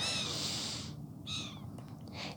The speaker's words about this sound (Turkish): sevgili kuşlar birazcık daha sessiz konuşursanız ikinci podcast bölümümü çekiyorum.